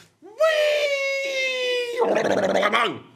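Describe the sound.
A man vocally imitates a man falling from scaffolding: a long, sustained wailing scream held steady, then collapsing into a rough, sputtering burst of crash-like mouth noises. It is loud and brief.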